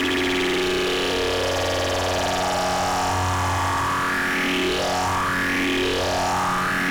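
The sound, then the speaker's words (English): A loud, thick synthesizer drone with its super oscillator turned up high, heavily detuned, buzzing steadily and then sweeping upward in repeated rising glides during the second half. No one speaks. “So that's the super oscillator's turned up pretty high.”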